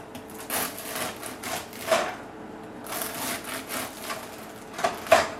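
Repeated rasping strokes of a knife sawing back and forth through crusty country bread, with small crackling crunches of crust, fairly quiet, no talking.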